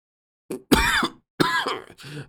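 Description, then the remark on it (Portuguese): A short fit of rough, throaty coughing from a person getting to their knees after being choked: a quick catch followed by three harsh coughs in fairly steady succession, with brief pauses between them and no talking. “Ah, que macumbeira! Perguntei tossindo, me pondo de joelhos.”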